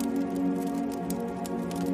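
A fireplace fire crackles softly and steadily on New Year's Eve, a few minutes before midnight, with irregular small pops and snaps over a constant low, warm rushing bed. No one speaks.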